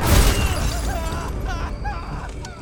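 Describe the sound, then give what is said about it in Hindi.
An auto-rickshaw that suddenly sped out of its driver's control slams badly into a stone with a loud, booming crash, followed by a couple of seconds of scattered metallic clattering and rattling debris that gradually settles. “उसका ऑटो जो देखते ही देखते एक पत्थर पर जाकर बुरी तरह से टकरा गया”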